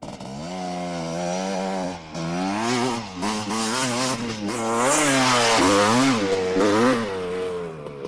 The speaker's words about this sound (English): No sooner had he said this the sound of a dual sport motorbike rang out from the back of the warehouse.